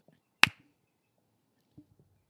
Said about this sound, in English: Okay. Okay. One, two, three, clap.